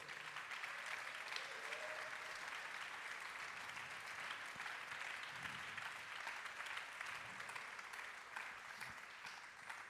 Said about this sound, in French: Je vous demande de les applaudir très fort.